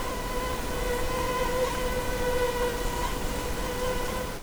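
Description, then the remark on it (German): A thin, continuous whine of mosquitoes hovers steadily throughout, with a droning buzz that barely wavers over a hissy outdoor background. No one speaks. “Hört ihr die Moskitos?”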